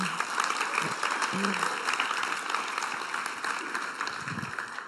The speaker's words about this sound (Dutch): Ja, een applaus waard, ja.